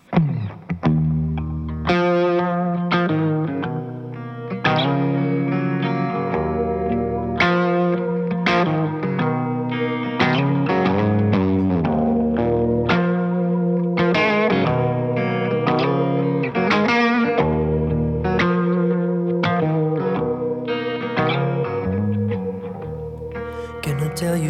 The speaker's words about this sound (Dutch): Dit zijn dikke fuzzgitaar gecombineerd met een … stem. De zanger heeft echt een bereik. Ongelooflijk. Maar het is blues zonder clichés als je er een genre op wil plakken.